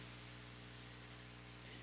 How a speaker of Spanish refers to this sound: Así como está lloviendo ahorita, así como está lloviendo